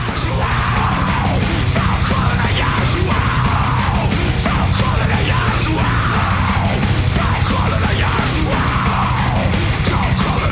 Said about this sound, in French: Putain, les, les, voix gueulées derrière là.